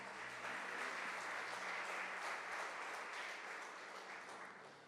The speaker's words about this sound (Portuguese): E se você crê nisso, aplauda Jesus bem alto.